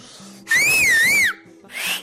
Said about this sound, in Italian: E io, grazie a Audrey Hepburn, ho imparato a fischiare con le dita da colazione da Tiffany. Fallo un po', fammi sentire.